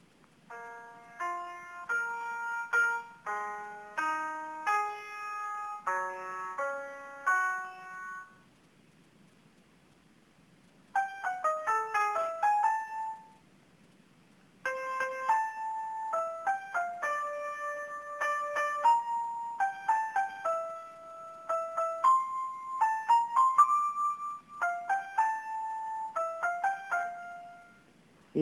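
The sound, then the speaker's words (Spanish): A song played on an electronic keyboard: bright notes in quick melodic runs, mostly single tones with some chords, pausing briefly before resuming a longer tune; clear, with no voices. “Aquí conseguí un piano. Bueno, no es un piano, es un teclado. Vean, vean, escuchen, escuchen.”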